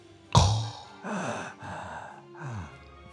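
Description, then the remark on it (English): A voice imitates Darth Vader's mechanical respirator breathing: a sharp opening gasp, then three slow, hoarse, rhythmic breaths, moderately loud, with no talking. “I, you know, that's the sound of a man dying and with machine assisted, almost not dying, dying.”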